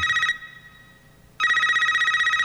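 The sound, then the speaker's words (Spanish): A man's mobile phone ringtone rings loud, a bright trilling electronic tone in two bursts separated by a short quieter pause, with no voices; the call is from his wife. “Suena el teléfono”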